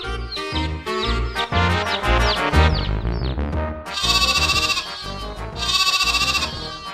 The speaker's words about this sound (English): Bah! Bah! says a sheep.